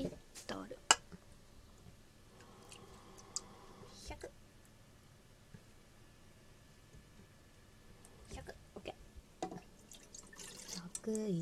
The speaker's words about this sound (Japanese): 例のごとくお鍋を洗うところから小さい片手鍋にお水を 100ml